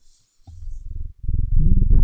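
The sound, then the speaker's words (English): A cat purrs, a low, steady rumble that pauses briefly and then returns louder and fuller. No one speaks. “Oh, uh, share my cat with you all.”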